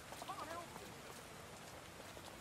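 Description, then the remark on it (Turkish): Steady rain falls in London in the video game Watch Dogs: Legion, a soft, continuous hiss of many tiny drops, fairly quiet and even throughout, with a brief faint chirping tone near the start. “Arkadaş Londra al işte Londra ya. Yağmur yağmur yağmur.”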